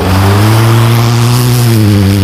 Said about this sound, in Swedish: Lyssna. Som du hör är det en Ford Fiesta R2.